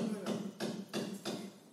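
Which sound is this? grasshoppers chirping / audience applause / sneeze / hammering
hammering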